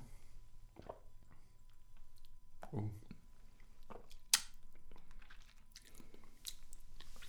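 Wet chewing of a cinnamon snack with irregular crunchy bites and squishy mouth sounds, a sharp click partway through, all loud.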